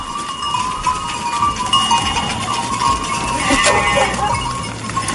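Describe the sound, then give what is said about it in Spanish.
A pasture soundscape of livestock at the Lakes of Covadonga in Asturias, Spain, with sheep, goats and cows, bleating sheep and goats over a steady wash of noise and a faint, tinkling bell; no voices are heard. “quiere seguir el oficio familiar, cuidar de sus ovejas, de sus cabras, de las vacas”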